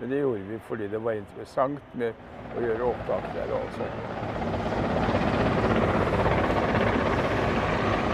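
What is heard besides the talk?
helicopter flying overhead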